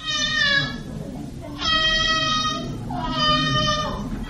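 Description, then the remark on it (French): A young child cries in three long, wailing bursts with high, strained harmonics, loud over a low rumbling background, in hill country among coffee and banana plantations. “Et l'on est tout surpris d'entendre tout d'un coup un enfant qui pleure.”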